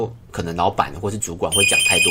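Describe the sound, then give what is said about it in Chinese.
Partway through, a telephone starts ringing with an incoming call, a steady, high electronic tone that continues to the end, sounding under ongoing speech. “不好意思，刚刚因为有电话进来，所以我我按了暂停。”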